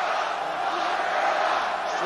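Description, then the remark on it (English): A large rally crowd chanting the slogan "lock her up" in unison, a dense wash of many voices that stays loud and steady throughout the short stretch. “Are they doing lock her up on her Pelosi now too”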